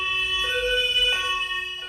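A two-tone police siren (Martinshorn) in road traffic alternates steadily between a higher and lower pitch, fairly loud, with a low traffic rumble underneath and no voices.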